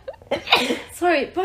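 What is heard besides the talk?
sneeze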